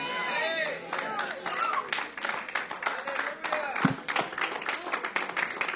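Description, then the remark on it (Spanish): An audience breaks into sustained applause, many hands clapping in a dense, steady patter, with scattered voices calling out and chattering underneath throughout. “Yo no le dije que aplaudiera, solo le dije darle un abrazo a su vecino y levantarse y decir, ¡Ey!”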